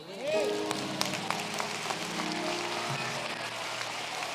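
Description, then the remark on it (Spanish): A church audience breaks into applause for Jesus during a sermon, a dense, steady patter of many hands clapping for several seconds, with some voices calling out over it. “Alguien de un aplauso a Jesús.”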